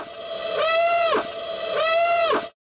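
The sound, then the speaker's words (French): An alarm sound effect signalling the start of a spoiler section: two loud, identical electronic wails, each holding a steady buzzy tone before sweeping down sharply, back to back with no one speaking. “ah, j'entends l'alarme de notre spoiler zone qui se met en marche.”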